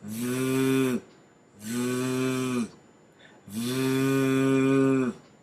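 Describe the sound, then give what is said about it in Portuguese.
A voice makes a sustained voiced 'th' buzz, the English sound in 'this', with the vocal cords vibrating, three times, each held about a second with short pauses between, loud with no other talking. “Então, esse é o som do this.”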